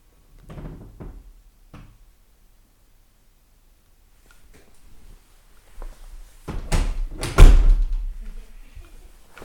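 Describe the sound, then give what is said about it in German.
A door is pushed shut, with a few soft knocks and shuffling at first, then a loud clattering bump and rattle as it closes, followed by a short settling rustle. “Hast du jetzt die Tür bitte wieder zu?”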